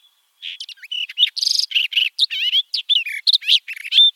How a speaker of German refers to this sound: wie der Name schon sagt, im, im dornigen Gebiet zu Hause, also da, wo es ein bisschen trockener wird und da, wo es so richtig balkanmäßig ist, da ist dann ab und an in unseren hiesigen Gegenden die Sperbergrasmücke zu sehen und auch zu hören.